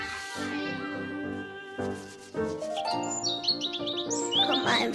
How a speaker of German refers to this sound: Frühling verlieben sich ganz viele Vögel und deshalb zwitsch zwitschern die im Frühling so.